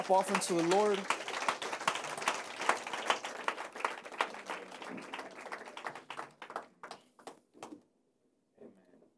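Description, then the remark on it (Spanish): An audience at a church service applauds for the Lord, many hands clapping in a dense burst that gradually thins into a few scattered claps before fading out. A voice is briefly heard over the start. “Pueden darle un aplauso al Señor, hermanos.”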